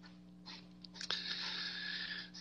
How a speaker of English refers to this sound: Printing out my notes here.